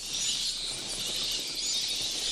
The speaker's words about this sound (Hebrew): כשאתם נכנסים למערה עם הרבה הטלפים זה נשמע בערך ככה.